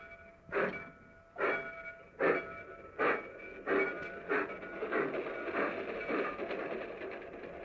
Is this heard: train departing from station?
yes